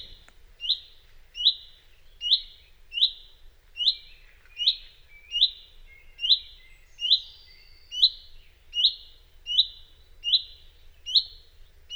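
A finch calls over and over, sharp rising chirps repeated at a steady pace, roughly one per second, clear against a quiet background with no voices, while a flock of redpolls calls from high in the sky.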